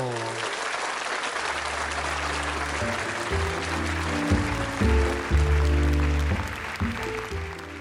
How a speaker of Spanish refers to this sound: Y para eso quiero que le den un fuerte aplauso a nuestra presentadora,